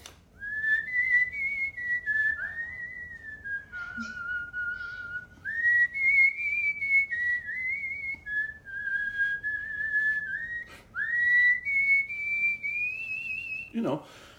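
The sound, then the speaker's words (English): A person whistles a slow, emotional melody of long sustained notes that glide smoothly up and down, clear, carrying on steadily for about fourteen seconds with no talking. “Whistling can be a very, very versatile instrument.”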